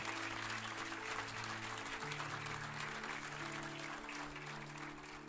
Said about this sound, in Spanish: Si ese aplauso era para mí, no me interesa. Si es para el Señor, dáselo con gratitud al Señor.